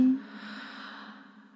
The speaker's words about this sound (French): Et tu vas inspirer